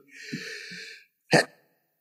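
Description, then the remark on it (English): A single sneeze: a drawn-out, breathy inhale lasting about a second, a brief pause, then a sharp explosive burst that cuts off quickly. “Bless you”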